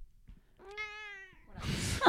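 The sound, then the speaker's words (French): A single drawn-out cat meow, clear against a quiet background, as the cat's rump is scratched, followed right after by a louder burst of rustling, scuffling noise. “c'est automatique, un grattage de cucu et ça miaule”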